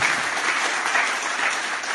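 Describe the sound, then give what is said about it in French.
Steady audience applause at an evening of the Club de l'Écho de L'Indépendant fills the whole two seconds, a dense, even wash of many hands clapping at once with no pauses and no voices standing out. “Je crois qu'on peut les applaudir aussi après beaucoup d'années.”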